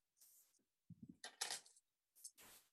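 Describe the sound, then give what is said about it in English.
Keys jingle and clink against the lock of a hotel room door in several short metallic bursts with brief pauses between them, fairly quiet, with no one speaking. “They put in the keys and the door.”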